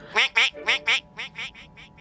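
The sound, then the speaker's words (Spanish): A duck quacks in a quick run of about eight nasal calls, loud at first, then trailing off slightly softer toward the end. “¿Un pato? ¿Y por qué un pato?”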